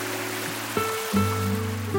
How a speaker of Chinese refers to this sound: 黎明之前，天地灰蒙蒙一片，浪花翻滚的声音从远处传来，隐隐的还能听到滴滴的吟唱声。